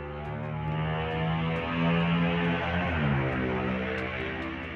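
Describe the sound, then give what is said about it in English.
A motorcycle engine drones steadily nearby on a highway close to a house, swelling louder midway as it passes and then falling in pitch as it moves off; no one speaks. “yeah the motorcycle is passed my house is so close with the road, the highway.”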